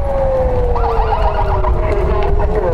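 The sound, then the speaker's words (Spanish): A loud air-raid siren in Jerusalem, activated after rocket launches from the Gaza Strip were detected, wails steadily, its sustained tone slowly sliding downward in pitch over a rumbling, noisy outdoor background. “Desde lunes se activaron las sirenas antiaéreas en Jerusalén tras detectarse el lanzamiento de cohetes desde la franja de Gaza.”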